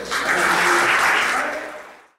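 A crowd at Tabernáculo Ciudad Merliot breaks into a strong round of steady, dense applause, many hands clapping at once in a loud continuous wash that holds for about two seconds before fading out quickly.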